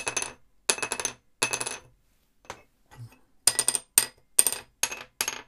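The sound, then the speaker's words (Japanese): Small wooden cello soundposts, including a new one, tapped against a hard surface to compare their pitch, producing bright, hollow clicks: three separate taps, a pause with faint handling noise, then a quicker run of six sharp knocks, clear. “良い音がする魂柱はどっち？”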